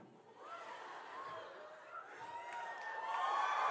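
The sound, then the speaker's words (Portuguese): A crowd applauds steadily, the clapping swelling louder toward the end, with scattered cheers, whoops and laughter mixed into the noise. “Não sei por que vocês estão aplaudindo.”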